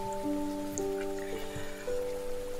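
Steady rain patters and hisses continuously at a moderate level, with soft sustained musical tones held over it and no voices.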